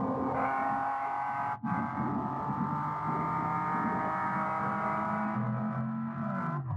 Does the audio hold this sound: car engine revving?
yes